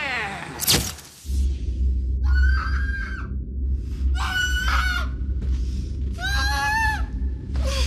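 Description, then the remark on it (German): A person screaming into a camera lets out a loud scream, followed by three more shrill, strained yells spaced a couple of seconds apart over a steady low rumble. “schrei doch einfach mal in die Kamera.”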